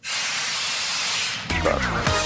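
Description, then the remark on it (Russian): A loud, steady rush of air hisses from a train's emergency brake, pulled as the train passes through Crimea, for over a second, then gives way to a jumble of higher tonal squeals and rumbling. “а у нас сорвали ну, стоп-кран, поэтому...”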